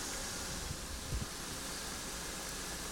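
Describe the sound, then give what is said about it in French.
Sumac cones simmering gently in a pot of water to extract dye, a soft, steady hiss with a few faint low bubbles rising near the middle, with no one speaking. “En tout cas, du moment où on extrait le colorant et ce qu'on entend, c'est vraiment les cônes de sumac qui sont en train de, de frémir tranquillement.”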